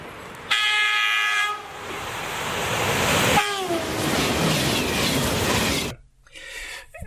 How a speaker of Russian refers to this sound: и мимо вас проносится поезд, сначала вы слышите, что звук и частота этого звука, скажем, гудок, да, который поезд дает, чтобы вы сошли с пути. Вот. Сначала он нарастает, а потом, как только проходит мимо вас, он, э, его тон становится ниже.